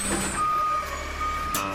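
A garbage truck's reversing alarm beeps with a steady, piercing tone over a low diesel engine rumble, with a brief burst of hiss near the end.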